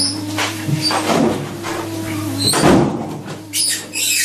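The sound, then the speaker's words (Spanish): A greenish glass-paned door opens with a few rattling clunks and a scraping slide over a steady low hum. No one speaks. “Después de caminar casi un minuto, intuyendo más que viendo, llegué a una puerta acristalada de un color que se parecía al verde.”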